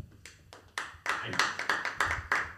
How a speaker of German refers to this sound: und jetzt klatschen mal die Leute, die an die Geschichte nicht glauben.